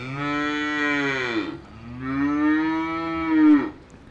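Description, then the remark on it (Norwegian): A cow moos loudly in response to a person calling it, two long drawn-out lowing calls back to back, the second rising slightly before breaking off. “Det var det noe god lyd på det, ja. Ja, Det sa jentuten min”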